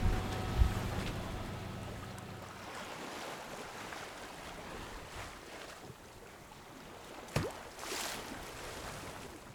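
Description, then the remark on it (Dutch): Steady, blustery wind rushes over a sailing boat, with broad hiss and rumbling gusts, low tonal hum early on, and a couple of brief knocks or thumps midway, no voices. “Wat is dit jongens? We zeilen. Dit is wind.”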